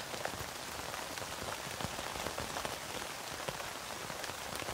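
Steady rain patters down on a tent, a dense, even hiss sprinkled with soft individual drop ticks, holding a constant low level with no voices, then a brief louder bump right at the end.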